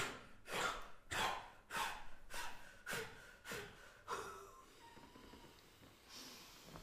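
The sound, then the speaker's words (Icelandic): In a breathing exercise, a rapid series of about seven sharp, forceful breaths blown out of the lungs through the mouth, evenly spaced roughly every half second, then trailing off into a few softer, quieter exhales. No talking. “öndunarhessun er þessi, ég ætla að sína ykkur fyllum hverjar úr lungun, smást út af munnin”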